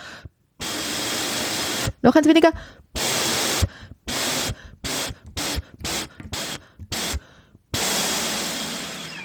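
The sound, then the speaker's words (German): Breathy, hissing air blown loudly through a wind instrument while the player covers its finger holes, then one hole fewer, in one long stretch, then a series of short bursts with gaps between them. A person speaks briefly early on. “Schönes Rauschen. Äh, ein, ein, ein Loch weniger.”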